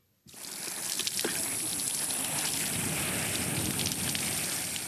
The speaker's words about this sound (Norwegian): Han vatna plantene sine.